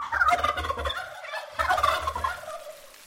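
A turkey gobbles twice, each a loud, rapid, warbling burst of about a second, separated by a short pause, with no talking.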